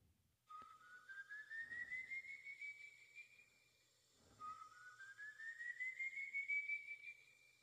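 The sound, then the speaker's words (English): Whistling of El Silbon, the whistler of legend: two long, slowly rising whistled notes, each gliding upward and holding a high pitch, separated by a brief pause. The tone is thin and eerie, fairly clear against a faint, hollow background. “This is the tale of El Silbon, the whistler.”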